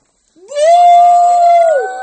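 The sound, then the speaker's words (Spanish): A voice imitates an elephant trumpeting: a single loud, sustained brassy cry that swoops up, holds steady for over a second, then drops away, with no talking. “Y uy, aquí tengo que hacer algo y de momento cogió la trompa, la subió para arriba y hizo...”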